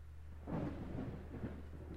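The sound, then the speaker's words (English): A low, rolling rumble of thunder from a storm swells in about halfway through and keeps grumbling steadily, moderately loud, with no voices present. “It's starting to come in again. The Monster Fest, yeah. Storm.”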